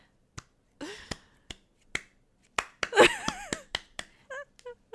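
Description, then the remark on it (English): A few slow, sparse claps land at uneven intervals, hesitant and unsynchronized, with some warbling vocal sounds and laughter-like noises mixed in partway through. The audience is clapping at the end of a video game opera performance. “And what really got me though is at the end, the audience was so hesitant in clapping.”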